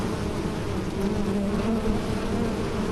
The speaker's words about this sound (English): I didn't know you had these! I said I didn't know you had these! It's a lot of bees! It's a lot of bees!